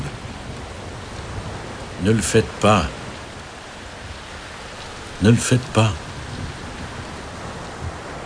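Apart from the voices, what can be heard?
heavy rain pouring down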